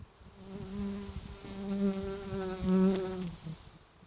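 A bee buzzes steadily around a flowering plant and a person's head, its low droning hum wavering in pitch and loudness as it hovers and moves around for a few seconds, with no talking.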